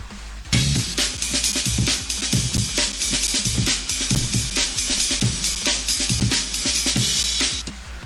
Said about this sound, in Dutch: De befaamde Amen Break. Die, die kwam plots zeer veel voor in hip-hop eh, en ook in Britse raves. En, en daar bouwde zich een heel genre rond.